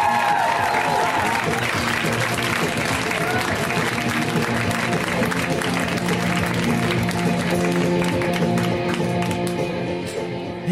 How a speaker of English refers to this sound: stop clapping there. Thank you.